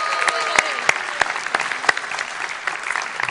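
A crowd applauds for a few seconds as someone comes up to read the passage, a dense, steady patter of clapping broken by a handful of sharper, louder individual claps, with no voices over it.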